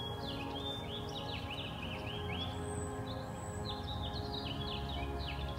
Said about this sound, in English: There's something special about waking up with the birds. The sound of sunrise.